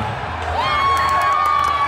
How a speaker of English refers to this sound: people are cheering. They are people are actually cheering the guy who took their protest signs down. So everyone's cheering the guy who took their protest signs down.